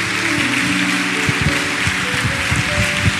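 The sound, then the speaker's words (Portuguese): An audience at a church service claps together in a dense, steady wash of applause for the Lord, with sustained musical tones humming underneath throughout. “Aplaudo o Senhor, aplaudo o Senhor.”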